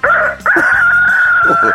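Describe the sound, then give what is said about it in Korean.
A person loudly imitates a rooster's crow in a voice-impression contest on Park Myung-soo's Radio Show, starting with a short burst, then a long sustained, strained wavering cry held to the end, with no talking. “닭소리 들어보겠습니다.”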